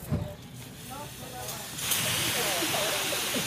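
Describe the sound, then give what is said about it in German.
A fire extinguisher bursts into a loud, steady spraying hiss partway through and keeps going, used in a fire-safety extinguishing drill at a daycare centre where five extinguishers stand ready, with indistinct voices and chatter of people underneath. “Hier stehen jetzt fünf Feuerlöscher und die nächsten dürfen an den Feuerlöscher und loslegen.”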